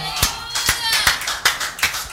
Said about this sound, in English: Give the Lord a mighty, mighty clap offering.